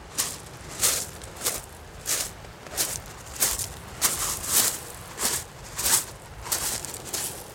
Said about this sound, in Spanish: al escuchar un fuerte ruido de olas y un crujir de las piedras, Nico se despierta sobresaltado. Son las pisadas de don Pepe.